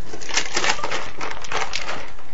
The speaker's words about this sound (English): but I thought I'd be really nice and say, Crystal, I'll take a sip for you. So, Crystal, this is for you. I don't want to take the sip of this delicious martini.